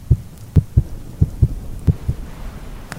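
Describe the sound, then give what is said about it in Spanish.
A loud heartbeat thumps alone in deep, muffled lub-dub pairs, about four beats in quick succession with no other sound around them. “Al mismo tiempo, el corazón latía con mayor violencia, cada vez más precipitadamente con más ruido.”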